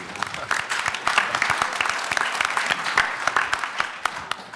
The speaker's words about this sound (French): Si je peux rajouter quelque chose, euh, on peut l'applaudir.